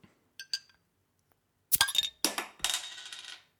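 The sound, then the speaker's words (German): A small 0.33-litre beer can is cracked open: a couple of light metallic clicks on the tab, then a sharp pop followed by a sustained fizzing hiss that fades out. No one speaks. “Das ganz, das ist also klar, es ist eine Bierdose, ähm, ich würde aber sagen, ist eine 03er, ist eine kleine.”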